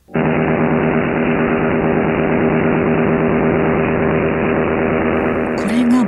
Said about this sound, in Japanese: 短波放送潮風に対する、えー、北朝鮮当局による妨害電波の音源がありますので、はい、一緒にお聞きいただきたいと思います、はい、お願いします。